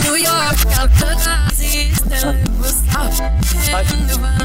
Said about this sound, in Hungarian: akkor mondd a dalcímet, hogy az előadót nem hallottam, bocsánat. Az előadó az szerintem ….